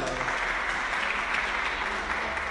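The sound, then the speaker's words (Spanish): A class breaks into applause for a student's answer, many hands clapping in a dense, steady crackle that holds at an even loudness for a couple of seconds, with no one speaking over it. “Merece un aplauso.”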